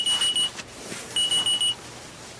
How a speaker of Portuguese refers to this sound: Se o cara que inventou o despertador bebesse Skol, ele não seria assim.